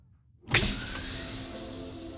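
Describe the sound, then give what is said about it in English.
A sliding door opens with a sudden loud pneumatic hiss that kicks in sharply, then holds as a bright, airy rush with a faint mechanical whine underneath, fading slightly as it continues. “The door hissed open, and Doug led the way down the platform.”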